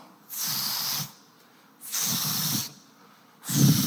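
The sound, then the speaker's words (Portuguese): Someone mimics with their mouth a small hand pump sprayer used for spraying, like one a man was using in the street, making three loud, evenly spaced hissing spurts, each lasting under a second, with the last one cut off at the end. “Negócio de pulverizar, não é, irmão?”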